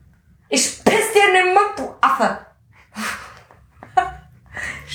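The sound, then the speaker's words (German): A throaty burp rumbles out with a voiced, croaking tone, surrounded by a few short breathy bursts and huffs like stifled laughter or gasps. “Oh, ich muss immer aufstoßen.”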